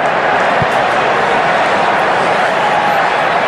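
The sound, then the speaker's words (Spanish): A stadium crowd shouts in a steady, loud roar that fills the whole stretch without pause, a dense wash of many voices with no single speaker standing out, reacting to the coin toss as the Rams lose the toss and Cincinnati wins it. “Por eso la gente gritó cuando dijeron eso.”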